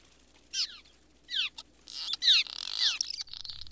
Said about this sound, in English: The barn swallow is heard first. Followed in a day or two by the squeaking of the cliff swallow,